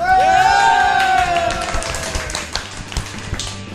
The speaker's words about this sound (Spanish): Y por fin tenemos a la gente de Wilson Podcast acá. ¡Un aplauso!